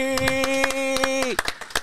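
Applause in a brisk, steady rhythm of sharp claps, heard over a sustained, hummed-sounding tone that drops away near the end, leaving a few final louder claps.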